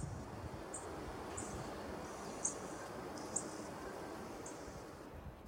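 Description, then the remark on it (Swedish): A little bunting gives about six short, high tick calls at irregular intervals, thin, over a steady rumble of wind and outdoor noise. “och på tal om locka så lyckades jag spela in den här dvärgsparven när den lockade några gånger.”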